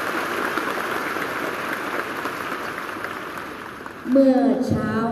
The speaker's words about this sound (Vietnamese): xin à, một tràng pháo tay dành cho thầy chốt đi